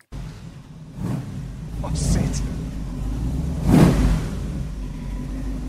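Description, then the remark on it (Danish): A deep, loud Ford Mustang engine, an American V8, rumbles in a garage, surging in several revving bursts over a steady low idle, with a brief spoken word partly under the noise. “han har besøgt et af de her Mustang-medlemmer, og så hans bil”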